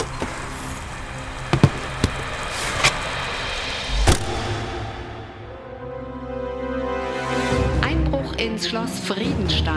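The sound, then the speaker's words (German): A blue P70 police patrol car drives past Friedenstein Palace in Gotha, its engine rumbling steadily with a few sharp clunks early on, then revving higher and louder as it nears and moves off. “Zur gleichen Zeit fährt ein Polizeistreifenwagen durch Gotha und kommt auch am Schloss Friedenstein vorbei.”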